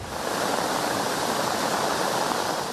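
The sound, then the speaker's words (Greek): Loud, steady roar of floodwater from Storm Daniel's heavy rain surging through ravines turned into torrential streams in Volos, a dense continuous wash of turbulent water with no pauses and no voices. “Ο μεγάλο όγκο βροχή μετέτρεψε σε ορμητικά ποτάμια τι ρεματιέ.”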